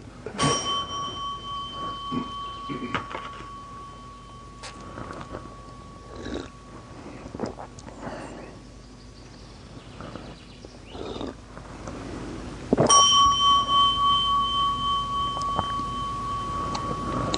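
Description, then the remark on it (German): A bell is struck twice during a recitation of texts, once at the start and again about thirteen seconds later, each strike a bright sustained ringing tone with clear overtones that slowly fades, over a low rumbling background. “Das, die Reihenfolge der Rezitationstexte kommt durcheinander, geklingelt wird, bevor das Korn zu Ende vorgelesen ist.”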